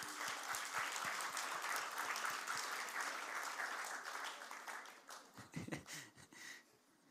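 Steady audience applause, a dense wash of many hands clapping that holds strong for several seconds, then thins into scattered individual claps before fading out.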